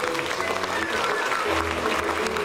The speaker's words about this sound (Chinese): 请你记得现在拍拍手，对，拍拍手，让我知道。拍手呢，代表鼓掌